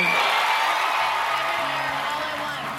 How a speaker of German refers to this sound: Großer Jubel. Michelle Yeoh ist die Hauptdarstellerin des Science-Fiction-Films Everything Everywhere All at Once und sie hat den Oscar für die beste weibliche Hauptrolle erhalten.